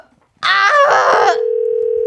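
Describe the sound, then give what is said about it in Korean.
A short, bright electronic chime gives way to a steady, unbroken telephone tone as a phone call is placed to a radio listener. It is loud, with no talking. The call does not connect. “예, 또 남친 얘기가 나오니까 굉장히 배가 아프지만 그래도 전화 한번 걸어볼게요.”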